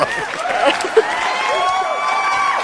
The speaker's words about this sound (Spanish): Aplausos nuevamente